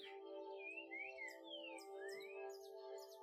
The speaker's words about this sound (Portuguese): Escute o canto dos pássaros, o som do vento.